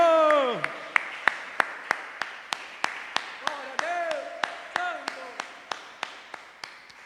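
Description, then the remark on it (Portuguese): An audience claps together as applause to the Lord, in a steady, even rhythm, roughly three sharp claps per second, while a voice talks or calls out underneath the beat. “Mais um aplauso ao Senhor, porque Ele é digno.”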